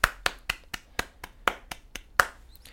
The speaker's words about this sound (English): I'm just going to have a moment to clap. Give me a second.